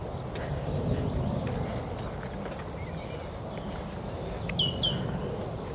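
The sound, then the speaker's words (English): Outdoor heathland ambience of steady rustling leaves and breeze, with a couple of thin, high bird calls breaking through midway, sparse rather than a full chorus. “At this time of year, it's just a riot of bird song.”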